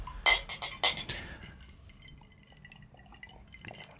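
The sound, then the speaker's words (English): Two bright glass clinks ring out close together near the start in a birthday toast, followed by faint tinkling and soft clatter fading into quiet. “Cheers. Yeah, cheers. Cheers.”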